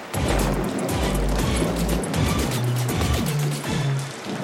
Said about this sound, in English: Hey, why is the rain coming down even harder?